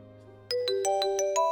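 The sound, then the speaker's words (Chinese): A telephone rings with an electronic ringtone, a quick run of bright, evenly spaced tonal beeps that starts abruptly over a soft low hum and stays fairly loud. “这时，电话响了起来。”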